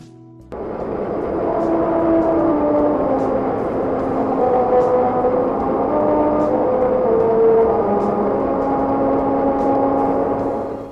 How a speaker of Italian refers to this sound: È una cosa un po' particolare, ma se voi eh, rispettate le miglia indicate lungo il percorso, eh, grazie a delle scanalature nell'asfalto sentirete letteralmente suonare i pneumatici della vostra auto.